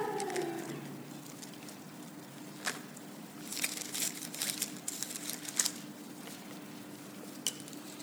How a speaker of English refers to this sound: love hearing the rustle of pages. That means we're in the Word together.